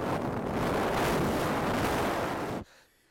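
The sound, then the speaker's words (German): Someone blows straight into a microphone, imitating wind noise: a loud, rumbling whoosh of distorted air lasting over two seconds before cutting off abruptly into near silence. “Ich, ich kann das ja mal kurz simulieren und hier so ein bisschen ins Mikro rein, reinpusten.”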